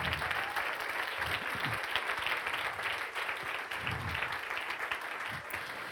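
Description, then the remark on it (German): A crowd applauds steadily, giving their neighbours a round of applause at the speaker's request: dense clapping from many hands at a fairly loud, even level for several seconds with no voices rising above it. “Und jetzt gib bitte mal deinem Nachbarn einen Applaus, weil der vielleicht schon ultra Jesusmäßig drauf ist und es selber gar nicht merkt.”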